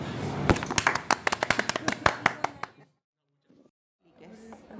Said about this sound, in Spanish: Un aplauso.